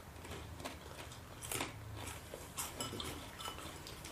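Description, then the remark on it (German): Someone chewing food at a table, with soft crunching bites repeating irregularly and faint clinks of cutlery or dishes, with no talking over it. “Essen und dann reden.”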